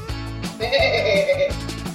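A single sheep lets out one wavering, quavering bleat lasting about a second, clear, over a steady low rhythmic background.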